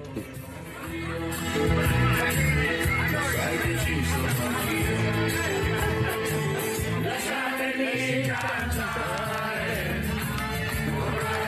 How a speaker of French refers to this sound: on l'a vu, vu, avec les Italiens qui ont chanté dans un bus euh, en allant. Eh ben, eh ben, on les a, on les écoute, ah.